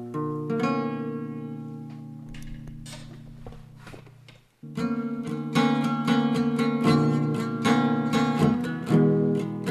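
An out-of-tune acoustic guitar rings through sustained chords, pauses briefly, then comes back louder with a run of rhythmic strums. No one speaks.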